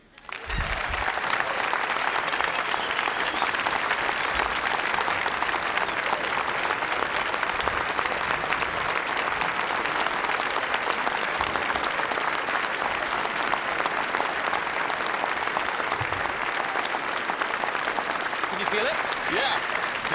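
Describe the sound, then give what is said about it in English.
A large audience claps steadily for about twenty seconds, a dense, even wash of many hands with a few faint cheers mixed in, sustained at a constant loudness throughout. “Actually, the, the, this is the first time I felt applause on the vest.”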